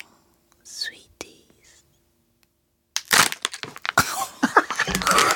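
A soft whisper at first, then a burst of loud crinkling, tearing and crackling as packaging is ripped open in front of a microphone in a studio control room, continuing in rough bursts to the end.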